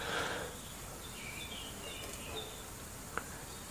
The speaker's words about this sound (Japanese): ちょっと今お絵かきをしているので鳥のさえずりをお楽しみくださいませ